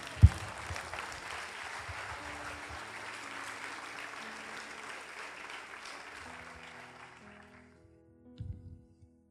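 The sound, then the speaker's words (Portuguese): A crowd claps steadily for about seven seconds, applauding the Lord with joy during a Portuguese-language sermon. The dense applause rises quickly and then fades out, followed by a brief low rumble near the end. “Aplauda o Senhor com alegria por causa disso.”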